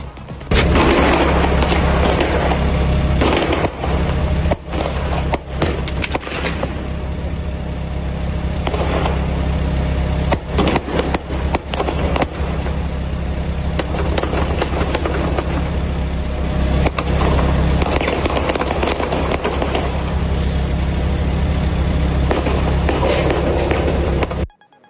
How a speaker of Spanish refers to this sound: del Aeropuerto Internacional de Santiago que se encuentran con esta balacera, este intercambio de disparos a plena luz del día, en horas de la mañana, cerca de las 8.10 es cuando ocurre esta situación.